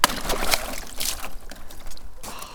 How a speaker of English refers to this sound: I was walking around the field and I came across a water butt for like horses to drink out of, and it yeah. was completely frozen the top of it. So I just cracked that.